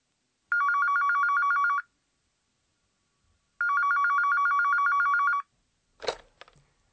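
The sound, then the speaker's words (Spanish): A telephone rings twice with a steady electronic warble, each burst lasting over a second with a pause between, followed by a brief clatter like a receiver being picked up. “Concéntrense, pues, en oír esta llamada telefónica”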